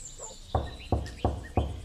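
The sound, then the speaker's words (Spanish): Four firm, evenly spaced knocks on a door, clear, with birds and insects chirping faintly in the background. “toquémosle la puerta a doña María que debe estar haciendo el almuerzo”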